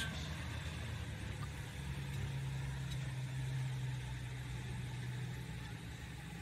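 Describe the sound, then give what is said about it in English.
A big pulling truck engine with a four-and-a-half-inch max turbo exhaust and pulling tires idles loudly and steadily, a deep rumbling drone with a throaty low hum and a broad roar of exhaust running without a break. “100 pounds four and a half inch max turbo exhaust, 24 532 pulling tires.”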